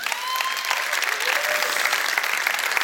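Sustained audience applause, a dense steady clatter of many hands clapping at a fairly loud, even level, with faint crowd voices mixed in.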